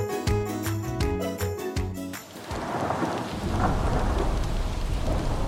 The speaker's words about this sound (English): It was raining all night last night, it was so heavy that it sounded like the air was hissing.